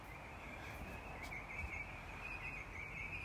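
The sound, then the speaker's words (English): Faint birdsong trills and chirps continuously early on a Monday morning, around 5:17, over a steady low rumble of traffic, with no one talking. “And I can hear the traffic as well as these lovely birds.”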